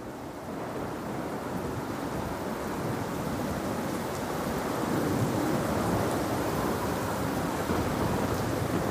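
Heavy rain pours down steadily onto a trench, running down the trench slopes, in a dense, continuous, loud hiss of pattering drops with a deep rumbling undertone and no voices.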